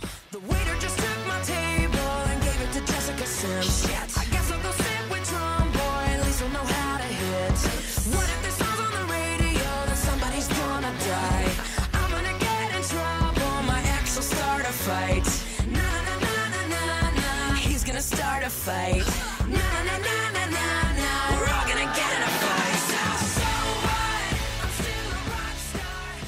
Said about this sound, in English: … got a song called …, which sounds like this.